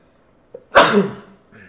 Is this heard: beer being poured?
no